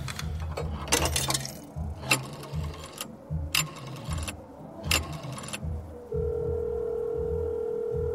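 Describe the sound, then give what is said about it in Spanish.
A telephone line rings with a steady electronic tone for the last couple of seconds, on a call placed from in front of a cantina in Chiconautla, State of Mexico, after a run of sharp clicks and clattering handset noise over a low rumbling background. “Pinches teléfonos de mierda.”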